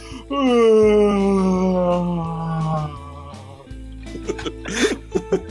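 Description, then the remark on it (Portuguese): A person imitates a sloth with a long, loud, exaggerated yawn, a drawn-out voiced tone sliding slowly downward for about three seconds, then trailing off into quieter breaths and small mouth clicks. “é só você dar um bocejo, pô. É um bicho preguiça.”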